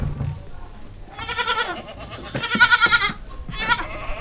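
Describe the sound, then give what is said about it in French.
Several young goat kids bleat in overlapping, quavering cries, with a few louder calls standing out over a busy background, on a goat farm with a cheese dairy where customers come to buy cheese and watch the kids. “Dans la fromagerie, des clientes viennent acheter des fromages et observer les chevreaux.”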